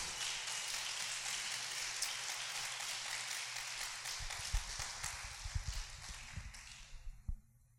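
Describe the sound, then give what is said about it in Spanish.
A church audience applauds the Lord in a steady, dense wash of clapping that holds for about seven seconds, with some heavier thumps near the end before it stops abruptly. No one speaks. “Aplauda al Señor si gusta.”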